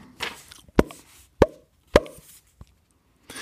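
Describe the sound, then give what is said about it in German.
Three sharp, loud plops pop off in an even rhythm, roughly half a second apart, followed by a fainter fourth pop, with a soft hissing noise in the background and no talking. “Draußen hörten wir immer weiter die Ploppgeräusche und Schreie.”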